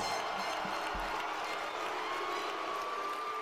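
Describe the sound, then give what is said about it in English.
A large arena crowd buzzes and cheers in a steady, dense roar, with scattered applause and whoops folded into the continuous wash of noise, as Steve Austin appears on the video screen. “The crowd now starts to buzz as Steve Austin appears on the video screen.”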